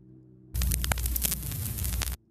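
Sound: static noise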